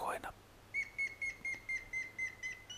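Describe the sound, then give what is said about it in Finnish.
A grey-headed woodpecker gives a whistling call: a series of about nine clear, evenly pitched whistled notes repeated in a steady rhythm, moderately loud, briefly preceded by a short burst of sound at the start. “No ainakin se on ensimmäinen, että tuo vihellys, mikä kuuluu, sitä kuulee parhaiten keväällä ja kumpikin, sekä koiras että naaras, ääntelevät, mutta sitä kuuluu myös nyt elokuussa, joten olkaapa tarkka.”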